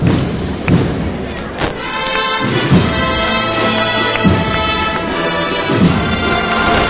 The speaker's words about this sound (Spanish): No sé si escuchamos esa levantada. Pues si se acaba de levantar el paso. Paso en este caso, no sé si lo habéis comentado, a Costal, eh, llevado por costaleras.